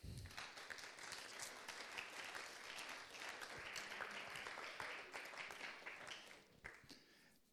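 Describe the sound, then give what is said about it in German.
A church audience at a service claps steadily in a dense, sustained round of applause lasting several seconds, before tapering off slightly at the end. “Ihr dürft euch mal alle einen Applaus geben.”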